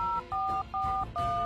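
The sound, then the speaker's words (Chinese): Four short electronic keypad tones in a quick, steady sequence, each a bright dual-pitched beep separated by brief gaps, with a low hum underneath: a phone number being dialed in an office to call a teacher. “我们这就给赵老师打电话。”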